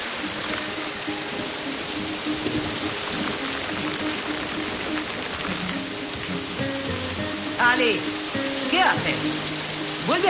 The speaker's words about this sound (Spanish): Llueve a mares. Pero si solo es agua, no me fastidies.